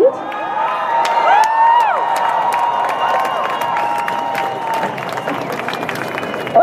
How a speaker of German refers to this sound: dass 200.000 Menschen auf der Demo sind. Großer Jubel natürlich.